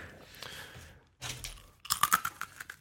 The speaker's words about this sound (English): Crunch on our cookies?